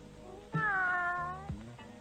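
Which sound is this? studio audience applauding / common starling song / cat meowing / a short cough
cat meowing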